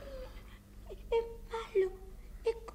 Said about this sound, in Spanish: Mírale bien. Mírale a los ojos. ¿No ves que está llorando?